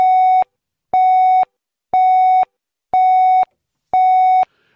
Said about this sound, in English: Um, before the news, you'd hear the news pips, which sound like this.